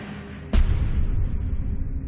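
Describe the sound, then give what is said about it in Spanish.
A single sharp gunshot cracks out loud, followed by a low, rumbling echo that lingers for over a second beneath a steady background, depicting the shots fired by revolutionary Fanny Kaplan at Lenin. “Sus disparos le alcanzan en el hombro y en un pulmón.”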